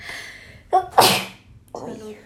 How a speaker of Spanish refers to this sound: perdón, tengo que estornudar